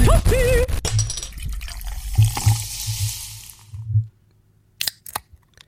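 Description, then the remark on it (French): A can of Le Vandal beer snaps open with a sharp crack, then a few seconds of foamy, fizzing pouring, followed by brief clinks and taps after a pause. No one speaks. “Juste pour passer de Zoom à Stream, à StreamYard, juste pour avoir le bruit des canettes de le Vandal ça valait l'investissement.”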